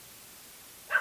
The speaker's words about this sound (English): Yeah, and if you hear the dog barking, that's because there is a dog barking.